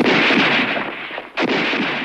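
Loud carbine rifle gunfire with booming, echoing blasts that roll into one another, and a sharp fresh shot cracking out near the end before the rumble continues. No voices.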